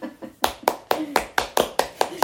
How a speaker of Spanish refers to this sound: Que eh, por cierto, un aplauso porque muy buena explicación.